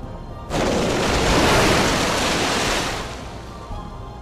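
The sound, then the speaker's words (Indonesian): A sudden, loud splash of something plunging into a waterfall bursts in and becomes a roaring rush of water that holds for a couple of seconds, then fades to a softer, steady wash. No voices. “Akhirnya dia memutuskan untuk menceburkan diri di air terjun.”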